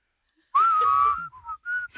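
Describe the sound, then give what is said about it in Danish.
Someone whistles a short tune in a whistling test, starting with a long, steady held note and then a few quick, shorter notes. The whistle is clear and fairly loud, and no one speaks. “Ja, ja, du er faktisk ret god til at fløjte.”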